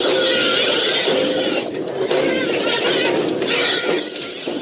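A loud, harsh robotic screech like the ED-209 screech grinds on continuously for several seconds, with a steady squealing tone underneath and brief dips in its rasping texture before it cuts off, no voices present.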